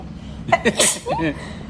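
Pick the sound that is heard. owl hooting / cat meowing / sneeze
sneeze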